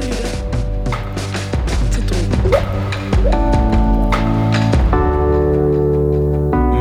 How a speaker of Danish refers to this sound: vi spiller den her sang